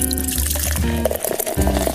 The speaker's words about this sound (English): So kick your feet up, pour your favorite drink,